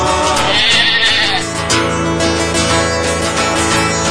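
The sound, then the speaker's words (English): Sheep bleat loudly, wavering nasal cries that blend into one another over about four seconds, with no talking. “Ah, the bleat and the meat of sheep to practice our manlyhood.”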